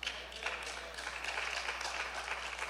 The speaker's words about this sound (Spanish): A ver, para los que no aplaudieron les voy a repetir.